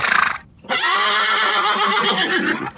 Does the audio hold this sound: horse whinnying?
yes